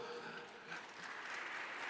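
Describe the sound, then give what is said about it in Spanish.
A crowd applauding steadily in recognition of God, a dense wash of many hands clapping at once that holds an even, fairly loud level throughout, with no distinct individual claps standing out. “Démosle un aplauso”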